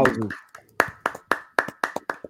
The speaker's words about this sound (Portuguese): vamos aplaudir aqui o nosso querido